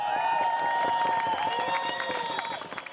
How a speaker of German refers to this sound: Also ich bin während der Orga bin ich im Demozug hin und her gelaufen und habe gesehen, die Leute haben gepfiffen und gesungen und geklatscht und gerufen.